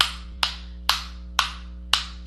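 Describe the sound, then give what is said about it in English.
Five sharp hand claps in a slow, steady rhythm, each crisp with a short decay, over a faint constant electrical hum and no talking. “I'm actually clapping”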